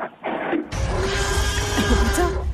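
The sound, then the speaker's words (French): A car horn honks in one loud, sustained blast lasting about two seconds, its steady tone buried in a harsh, raspy, noisy texture, with no voices present. “en tout cas, je vois que t'as un joli klaxon”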